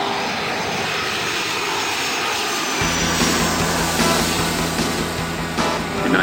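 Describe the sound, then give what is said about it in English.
United jet airliner engines roar steadily on final approach, cleared to land at Austin Airport, a broad loud rushing noise that deepens with a low droning hum partway through. “Jet Mainliner 803 over the gap on final. United Jet Mainliner 803, clear to land.”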